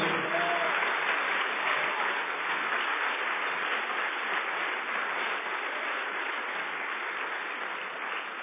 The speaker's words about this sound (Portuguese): Você pode dar o melhor aplauso que você puder ao Senhor, mas É assim o nosso Deus.